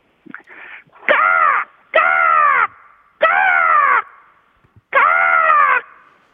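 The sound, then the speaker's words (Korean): A caller on the phone imitates a crow, giving four loud, harsh cawing calls in a steady rhythm, each about half a second long, with brief pauses between them and no talking. “까마귀 성대모사였습니다.”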